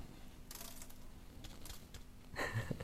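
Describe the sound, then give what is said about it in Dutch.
Grains of salt from toast are tossed into a washbasin, making a dry patter of tiny ticks in three short bursts, the last one a bit louder and more ringing. No one speaks. “Mijn man die heeft toosjes met filet gegeten en er zit korrels zout op. Maar die ga ik in een wasbak gooien.”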